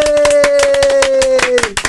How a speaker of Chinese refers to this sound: 我们今天先热烈掌声来欢迎王安志教授，耶！